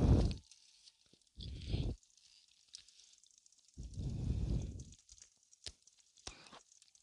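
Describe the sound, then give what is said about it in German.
Steady light rain patters in the background, with a few sharp drips and clicks, and heavy low rumbling bursts of wind or handling noise come and go over it. No one speaks. “Oh man, natürlich regnet es.”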